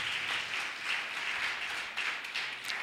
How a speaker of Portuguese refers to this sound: Você pode aplaudir ao Senhor, glória a Deus,